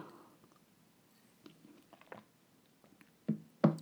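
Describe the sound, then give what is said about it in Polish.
Someone sips water: faint wet mouth clicks and small slurps, then two louder swallowing gulps near the end, with no talking. “Także ja, ja wiem, jak to brzmi, aż muszę się napić, słuchajcie, wody.”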